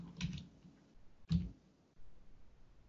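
Two soft, separate computer keyboard key clicks about a second apart, each a short dull tap, followed by quiet background with no talking.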